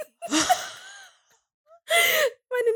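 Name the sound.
sneeze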